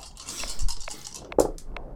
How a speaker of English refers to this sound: Whoops. Hmm, drop the dice.